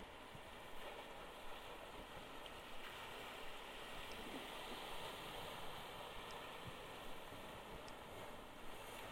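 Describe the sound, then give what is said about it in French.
Ocean waves surge and crash against a rocky breakwater, the swell forming white crests, in a steady, dense roar of churning water, continuous and fairly loud throughout with no distinct pauses, and nobody speaking. “On entend gronder l'océan qui percute l'enrochement. alors que la houle dessine des reliefs blancs sur la crête des vagues.”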